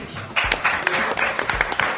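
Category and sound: crowd, audience applause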